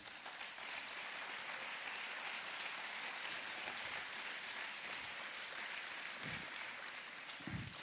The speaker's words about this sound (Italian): Ecco, io sono arrivato ieri, ho visto le facce di chi ha organizzato questo festival, che sono delle facce che raccontano tutta la fatica ma anche la passione e quindi dovete veramente ringraziarli e applaudire loro innanzitutto.